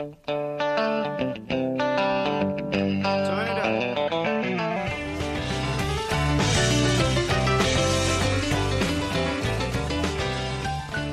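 A loud rock song with electric guitar, played on the radio station Radio KIT (104.8), opening with bright guitar lines before bass and drums kick in around the midpoint, then a full, driving band sound with a distorted edge, no vocals.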